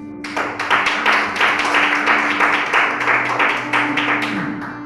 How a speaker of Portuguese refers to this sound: Para a honra e para a glória do teu santo nome, todos digam amém e aplaudam o Senhor Jesus.